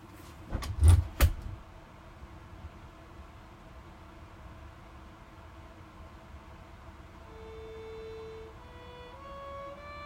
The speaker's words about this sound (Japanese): 外出ますね今外にセットしてドアを閉めます